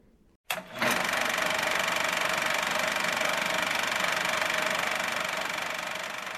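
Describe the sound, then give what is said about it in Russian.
After a brief moment of near silence, a film camera motor whirs into action and keeps running in a steady mechanical hum with a faint rhythmic clatter, fading slightly toward the end. “Камера, мотор, поехали.”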